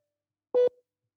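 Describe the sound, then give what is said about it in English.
A voice imitates a Boeing aircraft cabin chime call bell: one short, steady mid-pitched tone, clipped off abruptly with a faint tail. No other sound around it. “I'm going for uh, one of our cabin uh, chime call bells for the Boeing.”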